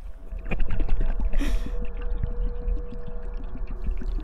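A single splash of a person jumping into water bursts out about halfway in, trailed by bubbling, muffled underwater gurgles and a low rumble that continues at moderate loudness to the end.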